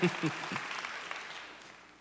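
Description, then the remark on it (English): A thin patter of scattered applause from a few people in a church audience during a sermon, starting with a brief voice or cheer from one excited man and then trailing off quietly over about two seconds. “but let me be honest why most of us didn't clap.”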